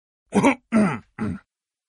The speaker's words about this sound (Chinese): 猪叔叔清清嗓子。